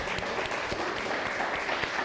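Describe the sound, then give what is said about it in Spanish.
A steady burst of applause, many hands clapping densely and evenly at a fairly constant loudness for about two seconds, with scattered sharper claps standing out from the wash; applause called for Argentina and for Ramón Hernández. “Ramón Hernández, un fuerte aplauso Ramón Hernández.”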